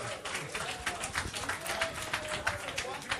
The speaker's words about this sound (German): Ja, Applaus!